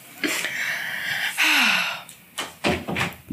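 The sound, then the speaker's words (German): A dog makes a series of dull thumps and knocks, several soft impacts in an irregular rhythm after a brief rustling stretch, with no one talking. “Das war mein Hund.”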